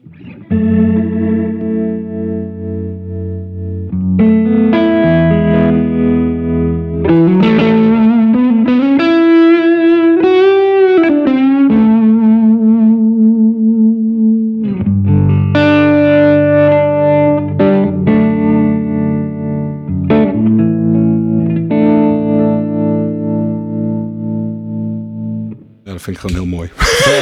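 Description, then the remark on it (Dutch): An electric guitar played through an Origin Effects tremolo pedal, ringing chords and bending notes held loud and steady for nearly half a minute, with a brief drop near the end before it swells back. “tremolo is an origin effect.”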